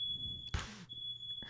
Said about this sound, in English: That was the fire alarm. That wasn't my sound. I mean, that wasn't the live studio audience either.